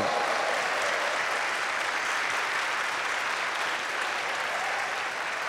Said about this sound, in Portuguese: Vamos dar um aplauso ao Senhor.